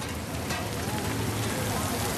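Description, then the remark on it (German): The first raindrops after several dry weeks, in autumn 2023 at Popayán, patter steadily on a surface, forming a continuous, even hiss of rain with fine speckled taps throughout and no clear pauses. “Und tatsächlich, nach der Scheckübergabe im Herbst 2023 fallen die ersten Tropfen.”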